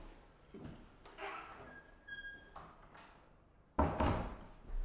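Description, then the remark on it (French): A door is handled with some clattering and a brief high hinge squeak, then swings shut with a solid, loud thud that briefly rings out, in the mezzanine of Hall 1 at the Salon 2023. “je vais fermer la porte.”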